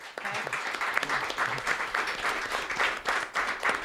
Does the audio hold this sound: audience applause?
yes